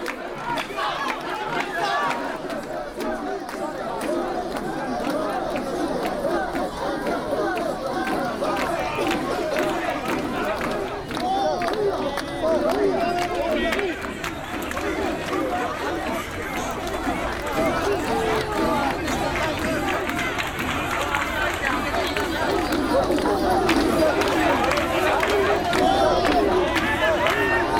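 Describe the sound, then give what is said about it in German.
A dense crowd at a Japanese matsuri festival, men and women in headbands, blue jackets and white cloth shoes, surges past through the Gate of Thunder, with a steady wash of overlapping chatter, shouts and hurried footsteps that stays loud and busy throughout, swelling slightly toward the end. “Männer und Frauen mit Stirnbändern, blauen Jacken, weißen Stoffschuhen drängen sich an mir vorbei.”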